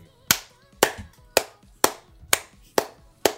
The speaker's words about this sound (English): I am the very embodiment of the Citizen Kane angry clapping scene.